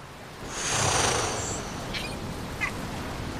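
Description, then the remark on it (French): A seagull perched on top of a sailing boat's mast cries out from above with a long, shrill call, followed by two short, sharp squawks, over a soft, breezy background as the wind blows, and no one speaks. “Un cri perçant descend du ciel. C'est une mouette qui se perche en haut du mât.”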